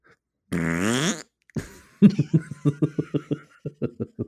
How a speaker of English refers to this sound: we're not a fishing podcast, we're a farting podcast